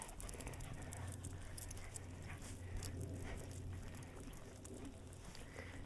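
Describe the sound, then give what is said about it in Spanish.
An excited, wet dog named Rico moves about, with steady pattering, shuffling and panting-like sounds over a constant low hum, and no one talking. “Come come, You're very excited, You are super wet.”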